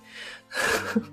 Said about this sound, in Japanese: もう猫、猫がね、マイクにスリスリしてるの。なんかちょっと雑音入ってますでしょうけれど、ご了承ください。